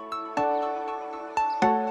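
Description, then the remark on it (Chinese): A doorbell chime rings twice, each time as a quick pair of bright, ringing tones that overlap and slowly fade. No one speaks. “房号三幺幺零，摁响门铃，推开一个故事。”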